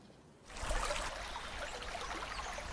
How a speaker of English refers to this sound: I derived a certain pleasure from studying the countless little waterfalls running down the side of the cone amplified by each and every stone.